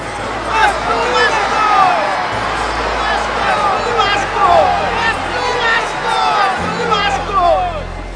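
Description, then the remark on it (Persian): A large crowd before Pilate shouts and clamors together against the release of Jesus, a dense roar of many overlapping voices that swells and stays loud throughout, with no single voice standing out. “چون پیلاتوس مایل بود عیسی را آزاد سازد بار دیگر سخن خود را به گوش جماعت رسانید اما آنها فریاد کردند”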